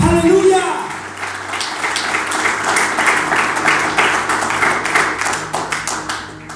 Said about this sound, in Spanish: Alguien puede aplaudirle al Padre Celestial.